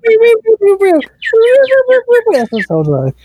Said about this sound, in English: I think you might want to go inside. These birds are getting louder. Seriously, come on.